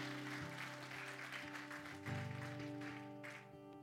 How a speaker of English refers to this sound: Can we give those people just a round of applause, encouraging them?